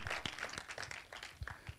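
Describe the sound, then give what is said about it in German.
Scattered applause from a small audience at a talk show, given to encourage the guests, a patter of claps at an uneven pace, fairly quiet and brief, with no voices over it. “Komm, wir geben dem mal einen Applaus, dann sind die auch ganz mutig.”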